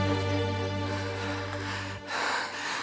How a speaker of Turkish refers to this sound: Nisa Mustafa'nın kollarında ikisi de nefes nefese, göz göze öylece duruyorlar.